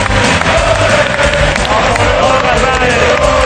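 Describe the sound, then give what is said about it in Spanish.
The studio audience of the TV show La Resistencia, all on their feet, breaks into loud, sustained applause and cheering for Gerard Piqué, a dense wall of clapping and shouts, steady for several seconds without a break. “Un aplauso para Gerard Piqué.”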